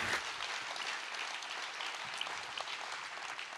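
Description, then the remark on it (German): An audience at a church applauds with steady, dense clapping that fills the whole stretch evenly, a bright crackling wash of many hands with no voices standing out, applause for all the church locations that invest in young people. “Das ist ein Applaus für alle Location, die in Jugend investieren und dafür Danke.”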